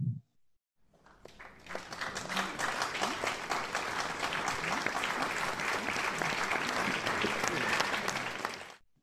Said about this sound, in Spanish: Sí, bueno, terminamos con aplausos.